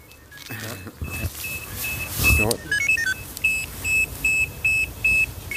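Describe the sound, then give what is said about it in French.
A rescue dispatch alarm, sent by the central dispatch around 9 a.m. as the day's first alarm for a callout on the Les Crozets ski slopes, starts with a steady electronic tone and a few chirps, then settles into a regular series of sharp, high beeps repeating at an even pace, loud. “Et ce jour-là, celui du reportage vers 9h, première alarme pour une intervention sur les pistes de ski des Crozets.”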